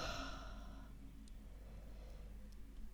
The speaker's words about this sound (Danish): Så trækker vejret ind gennem næsen på 4. 1, 2, 3, 4. Hold vejret på toppen. 6, 5, 4, 3, 2, 1. Og pust ud gennem munden.